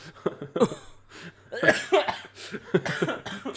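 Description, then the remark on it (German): Someone coughs in a string of harsh, uneven bursts, the strained, sputtering hacking of a person who has just choked on something, lasting a few seconds with no speech. “Ja, ja, hab ich gerade verschluckt äh, mhm.”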